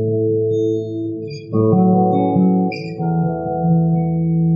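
A song's instrumental intro: warm sustained chords that shift a few times, with bright keyboard-like notes sparkling on top, played loudly and clearly with no voices.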